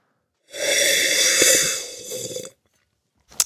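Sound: slurping wine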